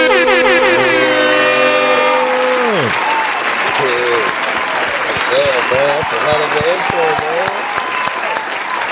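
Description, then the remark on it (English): A loud air-horn blast sweeps downward and cuts off, then a steady burst of crowd applause with whoops and cheers fills the rest as a Detroit rapper is introduced as a guest. “Ladies and gentlemen, put your hands together”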